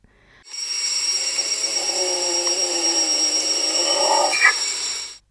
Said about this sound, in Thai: มีชนิดที่ 7 ก็พบในเมืองไทยเช่นกัน นั่นก็คือหมีหมาหรือหมีคนหมีหมา เป็นหมีที่มีขนาดเล็กที่สุดในโลก ความยาวของตัวยาวราวๆ1เมตรนะคะ ตรงหน้าอกมีขนสีขาวนวลเป็นรูปตัวยูค่ะ ที่มีชื่อว่าหมีหมา ก็เพราะว่าเจ้าหมีตัวเนี้ยมีเสียงร้องคล้ายกับเสียงหมาขู่แบบนี้ค่ะ